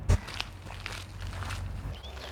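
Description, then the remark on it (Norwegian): Footsteps of people walking outdoors on the island of Utøya, Norway: a series of soft, uneven steps with one firmer thud at the start, moving at a steady pace over low background noise and a faint whistle-like sound near the end. “For mens vi går her”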